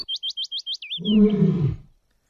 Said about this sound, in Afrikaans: Mag dit nie die koning se laaste brul wees nie. sê Arnoldus benoud. Dis nie hoe dit vir my geklink het nie. sê Hena onderlangs.